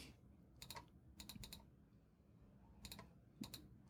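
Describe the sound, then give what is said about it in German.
Keyboard typing in short bursts of quick clicks, a few keystrokes at a time with brief pauses between, moderately quiet, with no one speaking, as someone enters their birth date in order to continue. “Ich muss kurz mein Geburtsdatum eingeben, um fortzufahren.”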